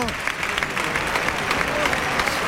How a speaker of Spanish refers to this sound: Calerito que recibe fuerte ovación merecidísima.